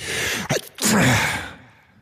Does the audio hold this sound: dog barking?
no